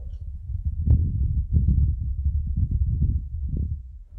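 A low, muffled rumble of wind recorded on the surface of Mars, droning steadily for about four seconds with soft gusty swells and faint thumps, and no voices.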